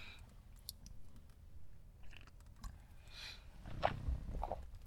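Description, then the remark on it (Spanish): Quiet sips of hot coffee with soft slurps, mouth clicks and swallowing noises, the loudest sip near the end, with no talking. “Pausa para trago de café.”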